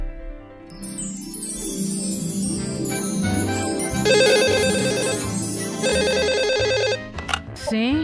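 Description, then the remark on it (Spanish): A telephone rings repeatedly at 5 in the morning with a bright, loud electronic ringtone, layered over a busy musical background before cutting off near the end. “Eh, eh, son las 5 de la mañana, caballero, pero ¿cómo ha conseguido usted mi número de teléfono?”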